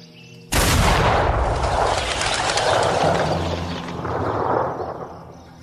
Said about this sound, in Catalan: ¿Está listo el primer contendiente? Listo. A mi señal, disparo.